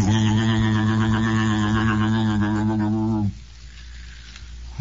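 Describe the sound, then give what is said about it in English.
A single low pipe organ note, one key pressed in a studio once the organ's motor has pumped up pressure, holds steady and reedy for about three seconds, with a slight waver, then cuts off abruptly into faint hiss. “they've got a stop that makes the pipe organ sound like a lady crying out over the moors in her anguish”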